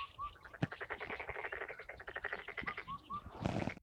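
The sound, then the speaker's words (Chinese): Indian cuckoo calling with a few clear whistled notes, set against a steady, loud chorus of rapid rattling pulses that continues throughout. “但是没有拍听到录到它的叫声，只录到了这个四声杜鹃。”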